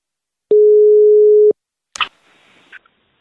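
A single steady, mid-pitched ringback tone sounds for about a second, followed by silence, then a sharp click and brief rustling hiss as the call is picked up.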